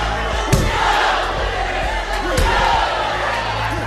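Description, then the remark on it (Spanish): Several dull, dry, heavy thuds of punches landing in a fight come at irregular intervals, cutting through a dense, continuous wall of crowd shouting and yelling. “A veces solo se oían los sonidos sordos y secos de los golpes encajados por encima de los gritos.”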